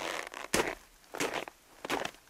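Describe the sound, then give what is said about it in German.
Three crisp crunches of old, crusty snow in a slow, even rhythm, like boots breaking through a hard icy crust, with quiet pauses between each step and no talking. “Oder das hier, das Geräusch von haschem Schnee.”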